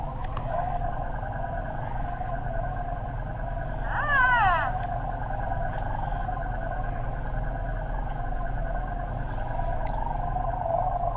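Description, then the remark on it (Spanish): An animatronic toy creature lets out a single short, warbling cry that slides downward in pitch, standing out over a steady low mechanical hum that runs throughout. “Y una cosa muy interesante, tiene más de 25 animaciones diferentes y con sonidos, pero también cuando lo montamos a la nave va a ser un sonido de la navecita, así que va a, va hacer silencio.”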